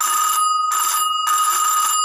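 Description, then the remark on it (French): A doorbell rings in three loud, bright, buzzing bursts separated by short pauses, the middle burst shortest, with no voices present. “Ça sonne donc.”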